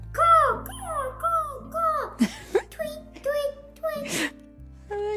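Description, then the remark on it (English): A child's voice imitates a bird call, producing a rapid series of high, swooping whistle-like chirps, around eight of them, fairly loud. “You want to make a bird sound?”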